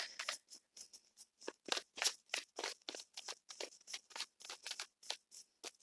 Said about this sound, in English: So, still shuffling the cards.